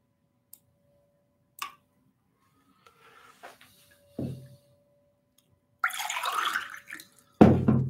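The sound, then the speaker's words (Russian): Water is poured briefly into a glass for the speaker to drink, a short splashing stream of about a second, surrounded by a few sharp clicks and knocks of a bottle and cup being handled. “Воды попью.”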